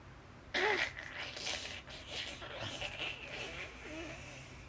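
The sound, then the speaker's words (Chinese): A door creaks slowly shut, a drawn-out groaning squeak with wavering, uneven pitch that starts abruptly and drags on for about four seconds at a steady, moderate loudness. “杰克和安妮转身往阶梯上方看过去，他们惊恐的望着门 缓慢的、吱吱嘎嘎的关上。”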